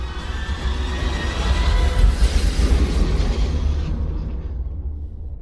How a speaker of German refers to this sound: Es gibt eine heftige Explosion. Vader wird weggeschleudert. Das Portal bleibt geschlossen.